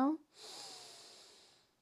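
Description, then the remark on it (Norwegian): A long, deep breath drawn in through the nose, a steady airy hiss lasting over a second, fairly clear, following a brief voiced sound at the start. “Da skal vi begynne med å puste godt inn gjennom nesa.”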